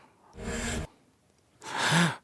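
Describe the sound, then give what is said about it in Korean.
Two sharp, breathy inhalations like a singer gasping for air between lines while singing, fairly loud, separated by a short pause; the second is longer and carries a slight voiced edge. “이거는 이거 어떻게 맞춰? 호흡이야.”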